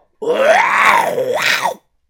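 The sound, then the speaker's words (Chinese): A single loud, drawn-out, earth-shaking roar lasting about a second and a half, voiced by a person imitating a brown bear roaring at an approaching man, with a pitch that swells, dips, then rises sharply before cutting off. “那庞大的身影立即就护住了他，并且冲着一步一步走过来的老福啊，发出了一声震天动地的吼叫声”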